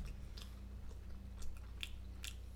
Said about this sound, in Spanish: No, estás comiendo pizza y papa John's. ¿Tienes una forma de probarlo? No. El sonido que hace es un sonido especial. Es el mismo que hago cuando como pollo. No. La amplitud de las ondas de sonido es más amplia cuando comes pizza.